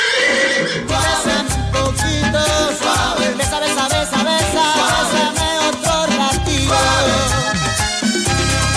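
A horse whinnies loudly and repeatedly over a dense, driving rhythm of low thuds like galloping hooves, the sound continuous with no speech.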